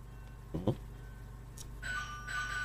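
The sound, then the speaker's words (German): A doorbell rings with two sustained chime tones in the second half, moderately loud over a low steady hum, preceded by a couple of brief soft thumps. “Oh, es klingelt. Musst du nun die Tür öffnen.”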